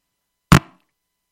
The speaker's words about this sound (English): I'm just going to change microphone. I'm sorry.